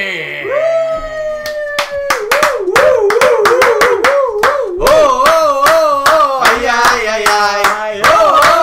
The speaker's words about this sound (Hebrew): קבלו אותו במחיאות כפיים סוערות